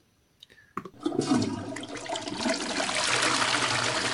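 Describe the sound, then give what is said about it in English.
A toilet flushes: a couple of clicks from the handle, then a loud, rushing surge of water that builds and keeps roaring steadily, with no voices. “He's still on there. He's still got the womble Wash your hands.”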